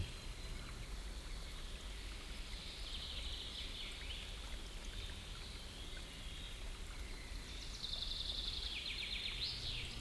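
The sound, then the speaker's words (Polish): Steady rushing of a stream at the foot of a mountain fills the scene, with high chirping birdsong weaving above it, growing busier and brighter toward the end; no voices. “Leżąc tak, wsłuchaj się w szum wody, w śpiew ptaków, które od wieków zamieszkują podnóże tej góry.”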